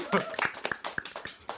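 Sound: audience clapping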